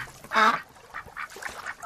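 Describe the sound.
A duck lets out one loud, nasal quack, then a quick run of four or five softer, shorter quacks in an uneven rhythm, with no talking.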